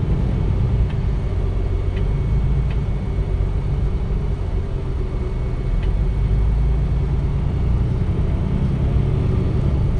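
A steady, loud low-frequency engine rumble fills the whole stretch, heard from inside a moving bus driving its whole route, with faint rattles and occasional light clicks over the continuous drone.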